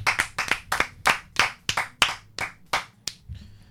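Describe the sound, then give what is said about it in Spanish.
Brief applause for the students of the VA for voting, from just a few hands: around a dozen sharp, bright claps in a steady, brisk rhythm, trailing off after a few seconds with no voices. “Entonces, un aplauso a los alumnos de la VA por votar.”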